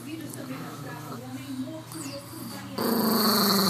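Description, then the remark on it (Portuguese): A small dog growls and whimpers in a steady rumble that shifts in pitch, then gets louder and harsher near the end. “Para, ah, parece meu puldo latino.”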